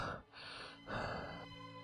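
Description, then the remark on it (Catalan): Two heavy, breathy exhalations in quick succession, fairly loud, like someone panting after exertion, with no talking. “Panteixar.”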